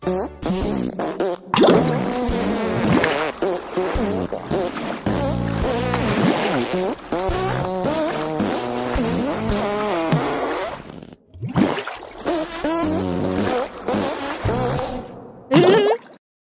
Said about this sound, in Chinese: 所以说喽，每个人都会放屁嘛。可是呢，我放的最好了。尤其是在洗澡的时候，